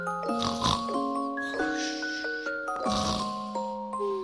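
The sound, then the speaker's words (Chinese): Two loud, rasping snores, a few seconds apart, rumble over soft sustained musical tones: a bear snoring heavily in its sleep. “原来是熊在打呼噜呢。”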